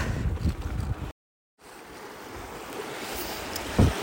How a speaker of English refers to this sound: I don't know if you can hear us because water is flowing.